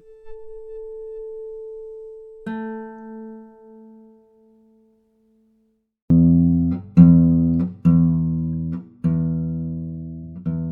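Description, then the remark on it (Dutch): A steady, pure ringing tone from a tapped tuning fork, then a brighter note blooms and fades as the fork meets the guitar, followed by several loud, rhythmic guitar strums. “de manier waarop ze de stemvork vastneemt en tegen de gitaar aantikt.”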